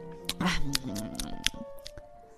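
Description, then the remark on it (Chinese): A voice makes exaggerated, hungry munching noises for a cat eating a big hamburger in big mouthfuls, a run of wet smacks and chomps with hummed tones underneath, gobbling for a couple of seconds. “猫大口大口的吃着，转眼就吃完了。”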